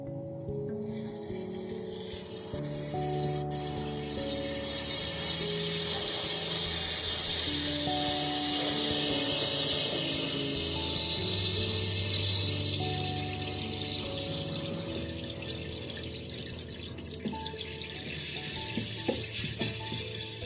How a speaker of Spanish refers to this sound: Así fue como se creó el palo de lluvia, que hoy en día es un instrumento divertido, relajante y ancestral. Pero, ¿y cómo suena el palo de lluvia? Vamos a escucharlo.